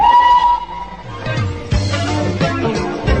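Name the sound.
steam train whistle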